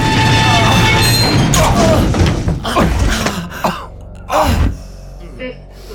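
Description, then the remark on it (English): A dense, loud rattling rumble of an elevator shaking as it goes down too fast, breaking into heavy jolts and a slam as it stops abruptly and the red emergency light activates, with gasps and breathy vocal sounds mixed in. “The elevator shook to a halt as the red emergency light activated, bathing the elevator in crimson.”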